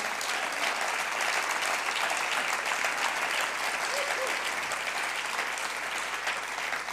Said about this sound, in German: Da können wir einfach mal Jesus einen Applaus geben.